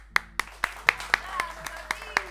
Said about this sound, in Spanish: Le damos la bienvenida y un fuerte aplauso para Martín